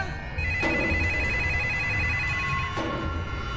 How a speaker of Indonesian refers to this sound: Astagfirullah, telepon kok bunyi.